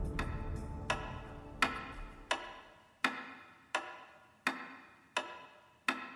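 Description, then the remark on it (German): A simple wall clock pendulum ticks steadily and evenly, about nine crisp ticks at a regular rhythm, with no voices or other sounds around them. “Ein einfaches Pendel wie man es in jeder Wanduhr findet.”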